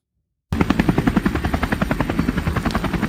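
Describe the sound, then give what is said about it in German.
A helicopter roars in after a brief silence, its rotor blades chopping in a rapid, steady rhythm, loud as it flies overhead. No voices are heard. “Ist das, ist das ein Helikopter?”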